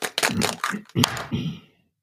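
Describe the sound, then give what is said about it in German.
Dice rattle and clatter, a burst of quick hard clicks tumbling over about a second and a half before settling into quiet. “Dann würfel ich jetzt mal”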